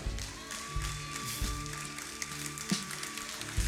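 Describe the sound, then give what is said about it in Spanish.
A crowd of about 20 to 50 people applauding in a steady, dense patter of claps, with a few sharper individual claps standing out over a low background hum. “Hay 20, 30, 40 aplaudiendo, 50.”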